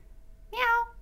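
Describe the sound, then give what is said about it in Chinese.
A person imitates a cat with a single short meow, a bright, nasal cry that rises and then falls in pitch, fairly loud against a quiet background with a faint steady hum. “好了，我要学猫学猫叫了。”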